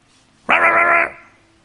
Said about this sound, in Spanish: ¿Notas el perro bravo ahí o no?